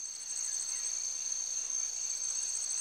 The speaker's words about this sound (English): Is that cicadas? Frogs. Tree frogs. Frogs. Night birds, tree frogs. Yeah, where's the pool of water where the frogs reside?